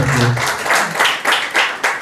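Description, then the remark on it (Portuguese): An audience bursts into steady applause for Jesus, many hands clapping in a dense, crackling wash that swells and pulses, with a low murmur of voices underneath at the start. “Dê uma salva de palmas para Jesus, também, tá Senhor.”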